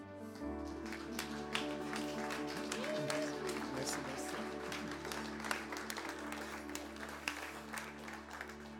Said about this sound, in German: Und lass uns aufstehen und ihm einen herzlichen Applaus geben.